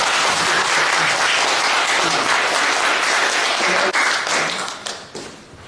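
Audience applause: a dense, steady wash of many hands clapping at full strength, thinning and fading over the last couple of seconds. No voices come through.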